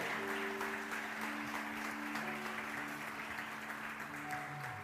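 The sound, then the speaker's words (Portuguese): Dense, continuous applause from a large church audience, clapping loudly in praise of God, holds steady and loud for the whole stretch, with sustained low organ-like tones humming beneath the clapping. “Se você crê, aplauda bem forte a Ele, Ele é bom, aleluia.”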